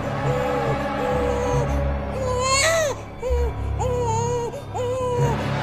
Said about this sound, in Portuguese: eu fui retirar a menininha da caixa para colocar na urna. Só que, de repente, eu levei um susto. Um susto danado quando eu abri aquela caixa e pego o bebê, o bebê começou a respirar começou a chorar nas minhas mãos.